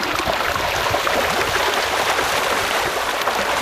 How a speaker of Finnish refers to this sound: Tää on se tapa, miten kirjolohi syö. Kirjolohiparvi saa veden pinnan kuohumaan. Satojen kalojen kimaltelevia kylkiä vilahtelee vaahdon seassa – kun kalat tekevät selvää jälkeä rehupelleteistä.